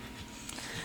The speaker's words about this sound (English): Sorry about our dog. If you can hear our dog, she's panting right now.